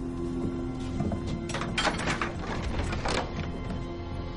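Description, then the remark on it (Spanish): A door is opened aboard the ship Artemis, with a run of scraping, rattling mechanical bursts over a steady low hum, with no one speaking. “Este abre una puerta.”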